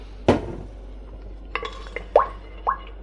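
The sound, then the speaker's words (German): Oil being poured into a pot: a sharp clatter of cookware, then a few soft, hollow glugging plops spaced irregularly, with no one talking. “Öl in den Topf.”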